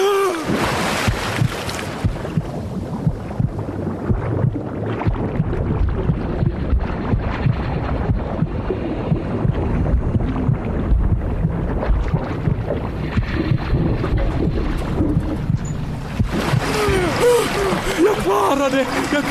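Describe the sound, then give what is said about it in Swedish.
Water is sucked out and the water level drops, rushing and churning steadily as it drains away, a loud, continuous gurgling roar, with brief muffled voices near the start and end. “Vattnet sugs ut!”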